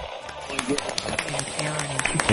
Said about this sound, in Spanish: Por favor, fuerte aplauso para nuestro grupo de cabecera.